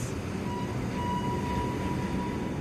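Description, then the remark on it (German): A train arriving at Kiruna rumbles along on the rails with a steady, heavy low roar and a faint thin whine above it, continuous with no voices. “Pünktlich um 9.14 Uhr kommt der Zug an.”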